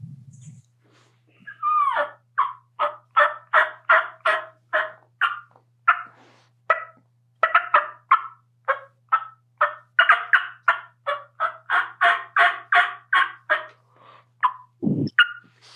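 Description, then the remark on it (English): A long run of wild turkey hen calls, dozens of raspy yelps in a steady, rhythmic cadence, fairly loud, with no talking over them, ending on a brief low thump. “but those bad sounding hens they all have a cadence and a volume, every one of them.”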